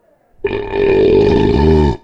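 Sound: loud belch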